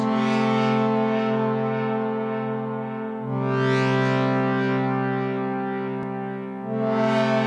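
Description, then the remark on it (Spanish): A very deep, buzzy synthesizer drone opens a song, holding steady and loud throughout, with brighter swells rising twice as the tone thickens, playing alone without any voices. “en la intro de …, que, que arranca con un sinte súper profundo”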